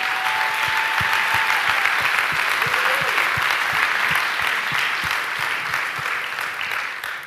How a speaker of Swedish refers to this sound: Nu är ingen, ingen pastor Mikael eller Lola här, men jag tycker ändå att vi ger dem världens största applåd för hur fantastiska de är och deras arbete.